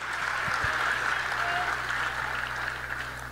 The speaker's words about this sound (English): But clap it up for that.